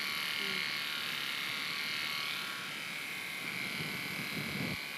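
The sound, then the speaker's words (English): Rechargeable electric hair clippers cutting a man's grey hair, running steadily with a continuous high-pitched buzzing whine that holds fairly constant throughout, dipping slightly midway, with a voice briefly audible underneath. “Does it sound like it needs charging?”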